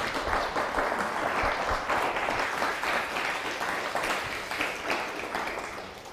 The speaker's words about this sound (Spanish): Uno, dos, tres, Shabbat Shalom. Fuerte aplauso.